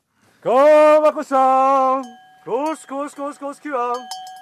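A dairy farmer calls his cows at the Søstu Eivangen summer farm, 800 metres above sea level in Svarthamerlia, Tyldalen, Nord-Østerdal, with loud, sung, wordless cries: two long drawn-out calls, then a quick series of short rhythmic ones, with a faint bell ringing steadily underneath.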